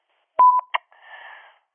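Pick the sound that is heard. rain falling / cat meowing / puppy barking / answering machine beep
answering machine beep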